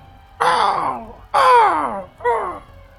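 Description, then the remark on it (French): A voice imitates a crow-like creature's cry: three hoarse, drawn-out calls, each sliding downward in pitch, fairly loud, with short pauses between them and no other talking. “Euh, ça, ça, ça s'y méprend un corbeau, mais t'es pas mal sûr que c'est une créature beaucoup plus gros qu'un corbeau qui a fait ce son-là.”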